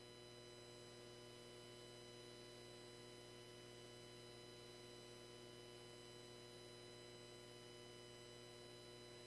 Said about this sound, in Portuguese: interrompeu, acho que caiu a transmissão dele